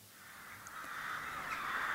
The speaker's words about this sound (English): As the sun fades on another day, scores of rooks and jackdaws are heading to roost on Coney Island, a small, heavily wooded island in the southwest of the loch.